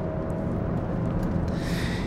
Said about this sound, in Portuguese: e lá vai o Subaru ainda de novo. Espero que não esteja muito alto. Tá, tá alto, tá alto que eu tô estando aqui dentro do carro. Dá uma distanciazinha desse carro aí, deixa ele passar.